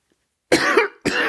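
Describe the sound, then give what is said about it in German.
Two harsh, loud coughs, the first drawn out and the second cut off, separated by a brief pause after a moment of silence. “Selten hat man gespannter auf einen Hustenanfall gewartet.”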